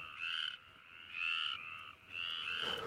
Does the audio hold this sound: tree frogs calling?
yes